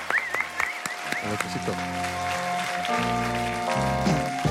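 A crowd claps steadily for several seconds, a dense crackling wash of applause, while sustained musical chords play underneath and shift partway through.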